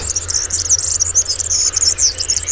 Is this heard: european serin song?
yes